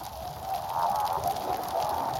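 Male red scorpionfish, camouflaged in Posidonia seagrass, croak underwater, recorded with a hydrophone from a boat: low rough grunting calls rising over a steady hiss and fine crackle from snapping and pistol shrimp, continuous and moderately loud with no talking.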